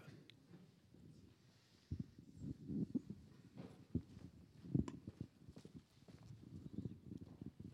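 Steady footsteps of someone walking their 10,000 steps at an even pace, each step a hard knock, with a faint low rumble underneath and no voices.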